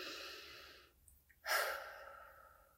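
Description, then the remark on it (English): A long, deep inhalation of breath, then a brief pause and a strong, airy exhale, with no talking. “As I take a deep breath today”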